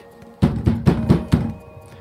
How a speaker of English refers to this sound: she stomped her way towards the Frankenvan side of the condo, knocked hard enough to make the door shake.